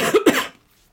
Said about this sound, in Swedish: kanske inte klipper bort den där hostningen. Eh, den passade bra in i temat.